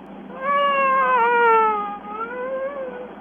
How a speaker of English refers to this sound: That's a siren.